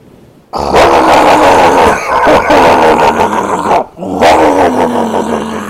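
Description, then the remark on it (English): The engine of an oil tanker and barge struggling to start: a loud, rough, grinding churn kicks in, runs for several seconds, cuts out briefly, then cranks again without catching. No one speaks. “Okay, I'm starting the engine now.”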